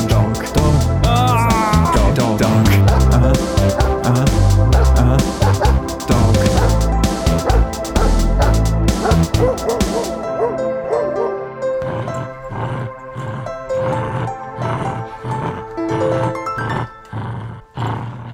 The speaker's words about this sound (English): Right, it's jingle time.